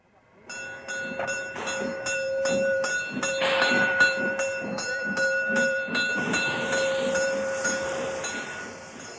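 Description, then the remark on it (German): A narrow-gauge steam train with small cars at Putbus station hoots with a long, steady whistle while a bell rings in a quick, even rhythm and the cars rattle over the rails, fairly loud throughout. “Als ich auf dem Bahnhof von Putbus den rasenden Roland erlebe, wie er mit seinen kleinen Waggons über die Gleise tutet, bimmelt und rattert”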